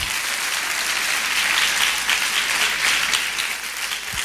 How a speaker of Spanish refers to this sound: Si vas a aplaudir, ese aplauso de Morondanga no llega ni a la lámpara.